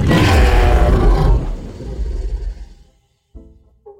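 A lion lets out one loud roar, a deep rasping rumble that fades over a few seconds, then a short silence and a brief low snarl.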